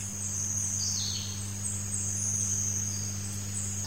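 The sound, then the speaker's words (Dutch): A dense swarm of whistle flies in a humid mangrove forest in the jungle fills the air with a steady, shrill high-pitched whine, with one brief rising sweep, over a low constant hum. No one speaks. “In deze broeierige wereld wemelde het van fluitvliegen.”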